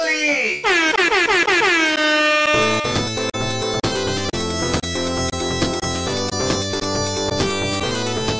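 A loud horn blast swoops downward in pitch for about two seconds, then a brisk, punchy musical jingle kicks in with steady beats and bright accents until the end.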